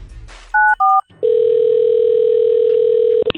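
Two quick touch-tone beeps of a phone number being dialed for a call on the Cosmo and Cat Show on Y107, followed by a long, steady telephone tone that cuts off with a click. No one speaks.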